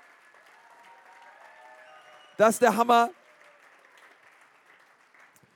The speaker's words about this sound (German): Hey, aber lass uns mal all unseren Friends in Erlangen mal einen riesen, riesen Applaus geben. Und komm, das geht, da geht noch ein bisschen mehr.